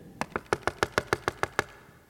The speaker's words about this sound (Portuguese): Na porta do lado de fora eu falei, gente, está alguém tocando nessa porta.